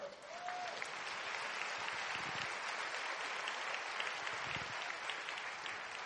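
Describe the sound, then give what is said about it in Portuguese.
A church audience claps steadily for several seconds, applauding the Lord, a dense, even wash of hand claps at constant loudness with no voices standing out. “Pode Amen. aplaudir ao Senhor.”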